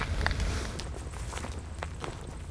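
footsteps walking outdoors

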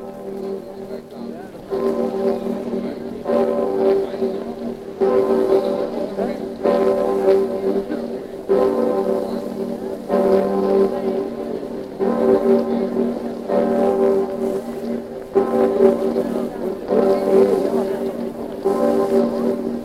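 large bell tolling

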